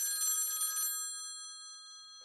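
A telephone bell rings once on an outgoing call in a short, rattling burst, then its metallic tones hang and fade away into quiet. No one speaks over it.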